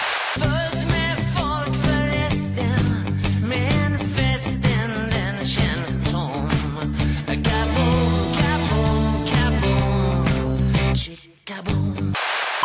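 A Swedish pop rock song from a band's latest album plays loud and full, with a driving drum beat, guitars and a singing voice, then cuts out briefly near the end before resuming.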